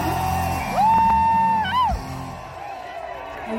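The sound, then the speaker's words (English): A crowd sings happy birthday in a video sent via WhatsApp, loudly holding a long note that swells and then slides down, with a murmuring throng beneath before it fades to quieter background noise. “Oh, somebody sent us a video of the crowd singing me happy birthday.”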